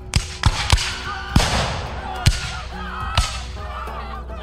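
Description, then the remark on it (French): A volley of arquebus shots fired by French soldiers at Mohawk warriors in a battle near Ticonderoga, in present-day New York State, USA, rings out in sharp, booming cracks, six or so at irregular intervals, some close together and others spaced apart, each trailing off with a rumbling echo. “Durant l'affrontement, les coups de feu des arquebuses des Français prennent les Mohawks complètement par surprise.”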